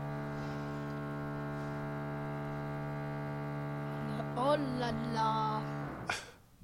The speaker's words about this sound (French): Alors, ah, encore les travaux.